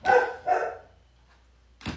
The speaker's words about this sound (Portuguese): a Luna está latindo, ela ouviu um barulhinho aqui